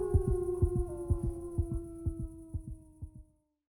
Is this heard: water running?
no